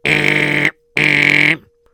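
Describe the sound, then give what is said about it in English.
An intercom buzzer sounds twice, each a loud, harsh, steady electric buzz lasting under a second, separated by a short pause, with no voices over it. “Uh, uh let me buzz in.”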